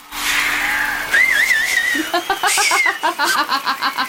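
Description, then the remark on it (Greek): A person whistles a wavering, high-pitched tune for about two seconds, then the whistle gives way to a quick run of rhythmic, chuckling laughter bursts. “Σφύρα, σφύρα, σφύρα, σφύρα.”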